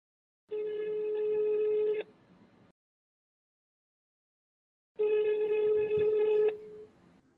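A phone call's ringing tone sounds twice, each a steady buzzy ring of about a second and a half, separated by a few seconds of silence, clear with no one talking.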